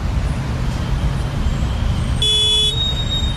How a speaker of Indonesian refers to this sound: Ya Allah, macet banget nih.